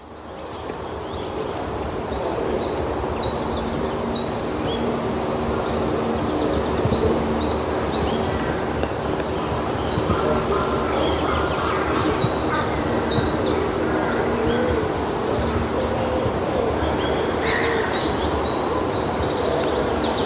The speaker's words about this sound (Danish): Der er øh, virkelig mange forskellige fugle, uden at sådan lige kan navngive dem alle sammen.